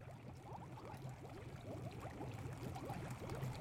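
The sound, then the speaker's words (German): A pot of stew bubbles steadily, with dense, quick little pops and gurgles over a low, constant simmering hum. No voices are heard. “Hört ihr das Blubbern?”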